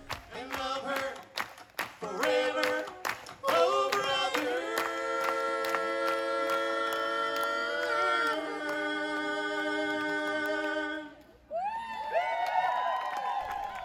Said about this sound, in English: hear that? It's live music coming back to the Pocono Mountains.